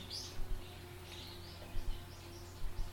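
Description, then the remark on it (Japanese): A black-and-white Japanese tit calls faintly at Mount Tsukuba, Japan, giving several short, high chirpy phrases (chupipi, chupichu) in quick bursts over a steady low background hum, with no one speaking. “白と黒で四十からですね。チュピピ、チュピピ。チュピチュ。”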